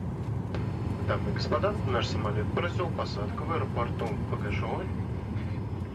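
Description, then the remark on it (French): A steady, droning airplane engine rumbles low and constant throughout, like cabin noise on a flight from Moscow to Tomsk, with a person talking over it the whole time. “Pour vous raconter les heures qui ont précédé l'empoisonnement d'Alexei Navalny, nos collègues de Moscou ont pris l'avion pour Tomsk.”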